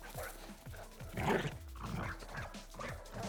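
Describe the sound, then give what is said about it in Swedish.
A dog being set on someone snarls and barks aggressively in a quick run of rough bursts, with one louder outburst in the middle and continuous low noise underneath. “Nej, men jag bussar hunden.”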